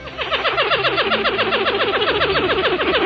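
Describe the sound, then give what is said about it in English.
A pied-billed grebe (Podilymbus podiceps) gives its greeting rattle: a loud run of rapid, evenly repeated chattering notes that continues steadily for about three seconds, with no talking. “This wail and what's described as its greeting rattle.”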